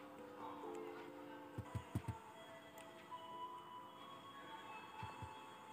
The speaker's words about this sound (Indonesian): bel stasiun, bel kereta sudah mulai dibunyikan.